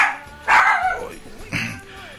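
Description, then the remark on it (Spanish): A dog barks twice, a loud, harsh bark followed about a second later by a shorter one, with faint background murmur between. “Perdón, pero nos están echando los perros.”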